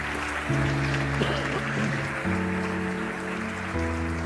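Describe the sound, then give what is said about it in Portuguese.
A church audience applauds the Lord Jesus in a steady, dense wash of clapping throughout, while sustained keyboard chords hold underneath and shift to new notes a few times. “Você pode aplaudir o Senhor Jesus por isso?”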